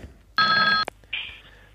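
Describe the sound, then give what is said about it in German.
A telephone rings in one loud, steady electronic burst of stacked high tones lasting about half a second, followed by a sharp click and a fainter, fading tone. “jetzt klingelt es.”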